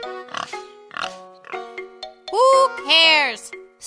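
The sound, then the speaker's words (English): A pig oinks in a quick run of short grunts, building into two loud, drawn-out squeals near the end. “Well, well, said the pig.”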